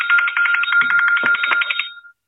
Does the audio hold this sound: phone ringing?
yes